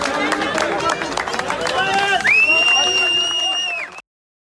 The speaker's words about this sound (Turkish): Eren Yıldırım ise hakkında verilen tutuklama kararından sonra adliyeye CHP'lilerin tezahüratları arasında geldi.